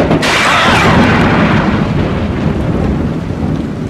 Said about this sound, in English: You really should get away from that oak! The lightning will be striking any moment now!